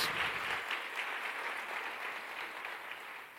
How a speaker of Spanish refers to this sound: Un aplauso para Dios.